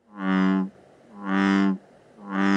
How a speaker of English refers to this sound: the bullfrog. The bullfrog is an introduced species that's a huge frog and a huge problem.